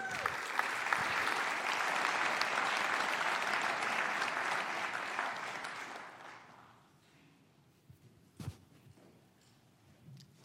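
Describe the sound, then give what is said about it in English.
A church audience at First Church applauds warmly to welcome guest speakers, dense steady clapping from many hands for about six seconds, then fading out into quiet with a few faint shuffles and a brief bump. “Let's give them a warm First Church welcome.”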